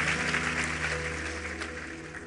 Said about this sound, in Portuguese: um então, aplauso ele bem forte.